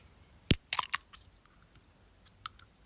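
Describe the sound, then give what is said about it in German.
An ice-cold can of Red Bull energy drink being opened in an office: a sharp snap of the tab, then a quick cluster of crackling pops, and one faint tick a moment later in otherwise quiet surroundings. “Ich äh, trinke heute im Büro ein Red Bull, eisgekühlt. Und mhm. ich öffne das erstmal.”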